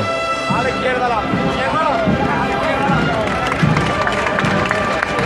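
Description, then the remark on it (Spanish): A large crowd at La Campana applauds steadily, dense clapping blending into a continuous wash with murmuring voices and some tonal sounds underneath, fairly loud and sustained throughout. “También se levantan los aplausos ahora de la campana.”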